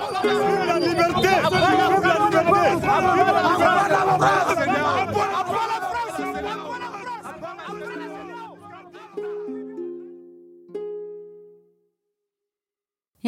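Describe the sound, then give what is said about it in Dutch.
A large protest crowd shouts and chants the anti-French slogan "À bas la France" (down with France) together in rhythmic bursts, loud and dense at first, then thinning out with a few voices calling before it fades away. “En onderwel werd gezongen of gescandeerd Abba la France, dus eh, weg met Frankrijk.”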